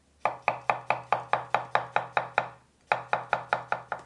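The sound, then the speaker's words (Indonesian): A knife chops steadily on a cutting board, crisp, about ten quick even strokes, a brief pause, then another run of rapid chops. No one speaks. “Itu suara orang sedang mencacah di atas talenan kan ya?”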